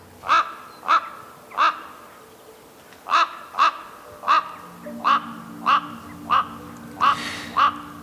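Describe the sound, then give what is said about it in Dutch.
A Eurasian jay calls about eleven times, harsh rasping screeches repeated at a steady, slightly uneven pace with a short pause near the middle, clear over quiet background hum. “Ehm, geniet in ieder geval van zijn pracht, want het is ook een magnifieke vogel die vooral in het bos voorkomt.”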